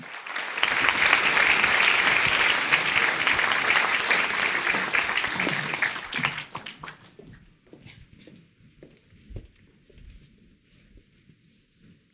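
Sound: audience applause welcoming guests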